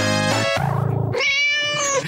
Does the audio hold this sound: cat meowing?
yes